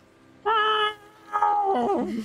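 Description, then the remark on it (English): A person's voice imitates a cat's drawn-out howl: a steady, nasal wail breaks off, then returns as a longer, wavering yowl that slides downward and trembles, loud. “The cat kind of just what turns its head and goes”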